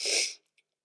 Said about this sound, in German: Also entschuldige bitte. Oder ich schneide es raus, dann wird wahrscheinlich jetzt kurz im Video so ein kleiner Schnitt gewesen sein aufgrund des Niesens.